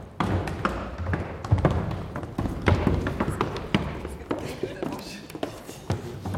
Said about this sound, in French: Les musiciens bougent les chaises, ils parlent, ils rient, ils toussent, et puis le calme revient.